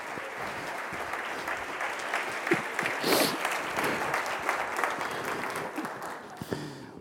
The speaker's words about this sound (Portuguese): Dê para Jesus uma forte salva de palmas.